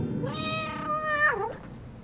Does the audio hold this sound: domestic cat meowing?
yes